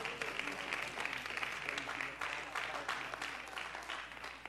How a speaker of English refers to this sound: Let's clap our hands and the Lord give him a little bit of praise before we seated.